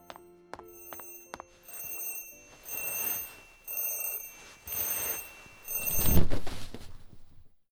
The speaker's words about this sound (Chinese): 被闹钟叫醒的时候，叶明哲非常恼火，但想了想今天的日程，他还是按耐住情绪，麻利的起身，开车到警局。